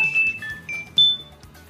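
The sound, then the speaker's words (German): A telephone rings in the main house at Moorstraße 19 after the number is dialled, bright, high-pitched tones, a few chiming pulses that each ring out and fade over under two seconds, with no voices. “Und im Hannigten Haupthaus in der Moorstraße 19 klingelt das Telefon.”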